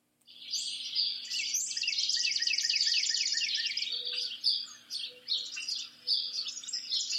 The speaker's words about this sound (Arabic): هذا أصوات عصافير